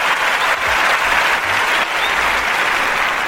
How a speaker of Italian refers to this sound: Secondo me a questo punto ci vuole un applauso per i clienti quelli belli. E bravi. Quelli bravi.